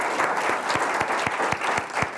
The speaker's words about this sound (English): Let's have a round of applause for our speakers, and thank you again for coming up.